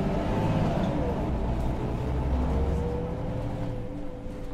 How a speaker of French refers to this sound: Les gens entrent et sortent du bus et je n'arrête pas de me demander il y va Elle y va